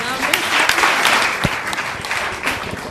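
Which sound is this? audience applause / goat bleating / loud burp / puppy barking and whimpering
audience applause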